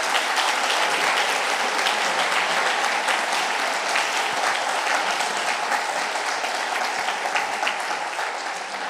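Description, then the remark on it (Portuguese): An audience applauds Jesus steadily, a dense wash of many hands clapping at an even loudness for the full stretch, easing off only slightly at the very end. No one speaks over it. “Podemos aplaudir, aplaudir Jesus, aleluia, é isso aí.”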